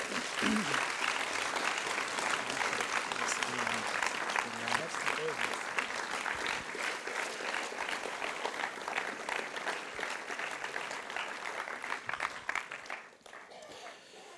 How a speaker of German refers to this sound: Und ähm, lass uns als Dankbarkeit einfach dir einen Applaus geben.